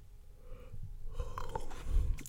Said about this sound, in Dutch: Sorry, ik moest even gapen.